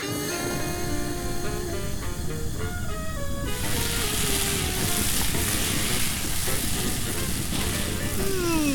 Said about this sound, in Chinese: 香啊！这个声音听得出来，好像是有人在炒东西呀。 嗯，这个声音好熟。哦，这是三杯鸡的味道。哎，还有炒米粉、炒饭耶！